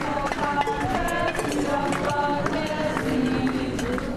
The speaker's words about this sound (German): Diese Gesänge werden die drei noch oft hören. Denn wann immer in den folgenden zwei Jahren Gerichtstermine anstehen, reisen auch Unterstützer an.